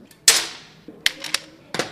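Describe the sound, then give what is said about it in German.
A type-casting hand mould, filled with metal from a ladle and left a few seconds to cast a letter, is opened: a sharp metallic crack with a ringing decay, then a few quicker clicks and clacks of metal parts, and a final snap. No talking. “Und dann wird das Metall mit der Kelle eingefüllt. Ein paar Sekunden Wartezeit. Und dann kann ich das Gerät sofort öffnen.”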